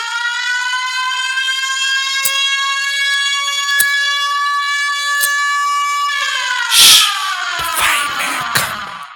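An elephant trumpets in a long, loud, brassy blare held steady for several seconds, then turns rougher and wavering with harsh bursts toward the end. No one speaks.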